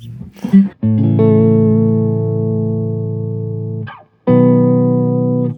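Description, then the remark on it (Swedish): A sustained synthesizer chord rings out with a wavering modulation effect, stops briefly, then a second chord enters and holds. A short burst of voice or noise comes just before the first chord. “Ta ett ackord till bara.”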